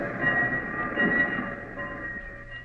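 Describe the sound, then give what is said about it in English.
A train that has been flagged down rumbles with a steady, high metallic squeal of grinding brakes riding over the low roar; the noise stays loud and constant throughout. “I heard a train approaching rapidly”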